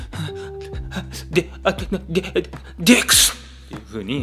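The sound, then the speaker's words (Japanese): A man's voice mimics a sneeze: a stuttering build-up of quick syllables, then a loud, breathy burst, before he goes on talking in a normal tone. “だからくしゃみしたくなったらハクションじゃなくて”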